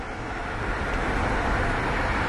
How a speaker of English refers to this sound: Jesus Christ, bro, I'm fucking stuck in traffic like a motherfucker.